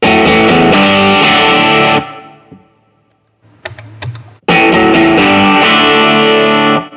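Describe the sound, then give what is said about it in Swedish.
Heavily distorted electric guitar through channel 2 of a 101 amplifier: two loud, buzzy sustained chords about two seconds each, split by a quiet pause with a few sharp clicks. “Här har vi kanal 2 på 101 då.”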